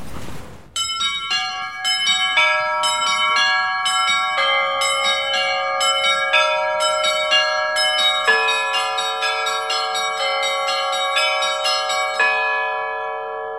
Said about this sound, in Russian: Один колокол или несколько? Нет, там три. Три. Комплекс. Три, да? На левую руку, на правую и две педали. Малая звонница здесь находится. То есть три небольших колокола. Ну, вот для тюрьмы этого достаточно.